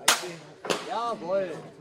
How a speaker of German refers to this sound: Die Schützen stehen unten am Baum und schießen die Bolzen ihrer Armbruste senkrecht nach oben.